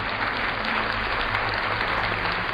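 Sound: applause sound effect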